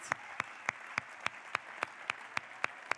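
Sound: audience applause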